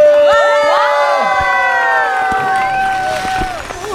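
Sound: audience shouting and cheering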